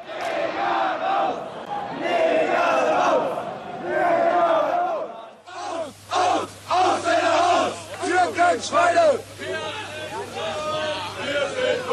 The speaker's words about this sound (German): Rechtes Gedankengut, das sich hier in den Straßen Rostocks in brutalster Form entlädt, findet man zuhauf, auch im Fußball. So sind in sämtlichen deutschen Stadien rassistische Rufe zu hören.